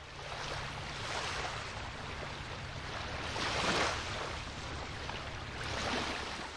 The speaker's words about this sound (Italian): Partiamo, salpando su una barca a vela, in direzione della Tunisia, lasciandoci alle spalle la tanto desiderata Lampedusa.